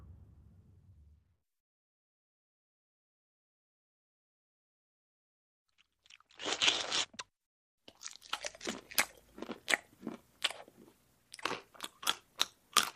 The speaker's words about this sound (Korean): 그러고는 입안에 든 밥알과 함께 소리를 내며 씹었다.